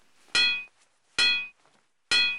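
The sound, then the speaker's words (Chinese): Three loud, ringing metallic clangs strike at a steady pace as a red ogre smashes a signboard, each one a sharp hit followed by a bright, sustained tone that rings out before the next blow lands. “这个破牌子太没用了，砸了吧！”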